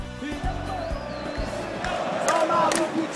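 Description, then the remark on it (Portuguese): A large crowd of Bahia football supporters sings a chant together, a dense, steady wall of voices with sustained sung notes and a few sharp thumps, growing slightly louder toward the end. “Que é vitória, mas a torcida do Bahia é legal pra um cacete.”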